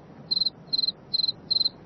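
A male cricket chirps by rubbing his wings together in a steady rhythm, four high, trilling bursts each made of quick pulses, sounding alone over a faint low background hum.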